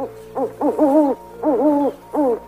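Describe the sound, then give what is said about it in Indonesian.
An owl, a brown night bird, hoots in a rhythmic series of rising-and-falling calls, several short hoots grouped in bursts with brief pauses between, clear against a faint steady hum. “iya betul sekali itu adalah burung hantu”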